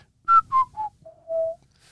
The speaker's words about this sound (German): also das haben die Eltern, für die war das wichtig mit sieben Kindern, ähm, dann kam dieser Pfiff raus und ähm, dann weiß jeder, wo wer ist und dann antwortet mit, man mit, also es geht und zurück geht es dann mit